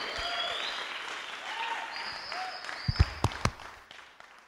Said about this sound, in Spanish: Vamos a darle un aplauso a nuestros invitados.